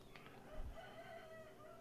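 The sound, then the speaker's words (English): A rooster lets out a single drawn-out crow, a strained harmonic call held for over a second. It sounds clear, with no one talking. “My my guy is literally laying up underneath the rose bushes with his harem of hens right now.”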